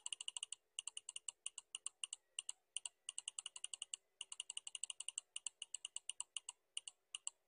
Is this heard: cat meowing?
no